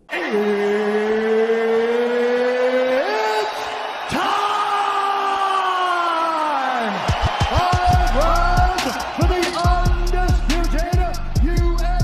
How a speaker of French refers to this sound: soyez les bienvenus dans MMA Club spécial Voiture Club parce que je suis dans ma voiture. Et oui, aujourd'hui je n'ai pas pu enregistrer de chez moi, je suis désolé.